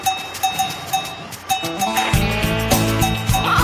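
A goat lets out a long, wavering, nasal bleat that rises and falls in pitch, following a run of steady, evenly spaced clinking taps like a small bell.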